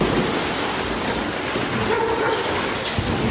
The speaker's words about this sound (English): And finally, for you today, winter is almost here, but there's still time for a pool party. It's a pool party for dogs. Look at them go.